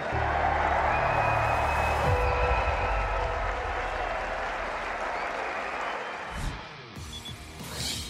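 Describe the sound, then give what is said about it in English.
A large crowd breaks into sustained applause with scattered cheers for Paula Badosa, the 2021 BNP Paribas Open women's singles champion, a dense, loud wash of clapping that holds steady before thinning slightly toward the end. “Let's hear it for Paula Badosa.”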